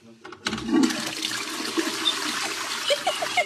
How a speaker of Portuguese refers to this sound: Ela bota sujo, dá descarga.